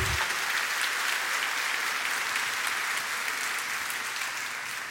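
Steady applause from an audience, a dense wash of many hands clapping at an even level throughout, with no voices standing out.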